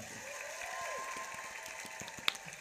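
A steady burst of group applause on a game show programme, dense irregular clapping at an even loudness throughout, with one sharp louder clap standing out near the end. No one speaks.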